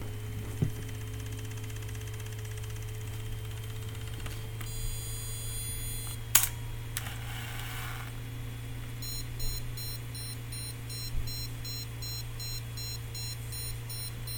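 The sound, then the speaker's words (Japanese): A film camera with automatic film winding fires with a sharp shutter click after a short electronic tone. A steady run of rapid beeps, the tone showing the power is on and the camera is ready, repeats over a constant low electrical hum, with no voices. “さっき今撮りましたけど聞こえましたかねなんかプープー言ってる 何これ怖い うーんおあこんな音ですこんな音ですこれが今、えー、電圧がちゃんと通って使えますよっていう音です”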